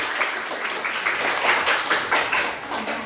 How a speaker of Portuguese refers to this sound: Uma salva de palmas, vai!